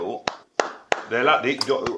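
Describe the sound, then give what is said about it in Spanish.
A lone person claps four times, sharp and loud, with uneven gaps between the claps. A voice talks over the later ones, and the last clap lands near the end of the speech. “a veces uno se siente como raro cuando aplaude solo, ¿verdad?”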